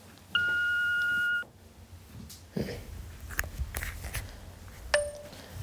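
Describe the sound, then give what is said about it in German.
A single steady electronic voicemail beep in an SWR 2 radio play, about a second long with a clear pitch and a faint higher harmonic. Quiet background noise and a few soft clicks follow. “Ich bin gerade nicht zu erreichen, aber wenn ihr was Wichtiges für mich habt, dann hinterlasst mir gerne eine Nachricht nach diesem nervigen Ton.”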